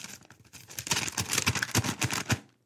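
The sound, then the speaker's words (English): Paper rustles and crinkles in a busy burst of crackling handling noises, used as a sound effect, lasting a couple of seconds before stopping abruptly. No one speaks. “Now, again, I just used the paper for sound effects because clearly the email is on my iPad.”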